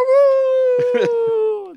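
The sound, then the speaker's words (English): Improvisers at an improv show let out a sustained, steady wolf-like howl of approval that trails off at the end, while a few brief bursts of other voices or laughter break in partway through. “the improvisers wolf howl of approval.”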